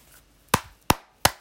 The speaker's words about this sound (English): Heh. I clapped for you,